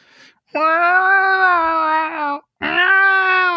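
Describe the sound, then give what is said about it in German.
A person imitates a cat yowling in heat: two long, loud, drawn-out wailing cries, the first nearly two seconds, the second after a brief pause, with no other talk. “Das war, das war immer die Hölle bei unserer Katze, wenn die rollig war.”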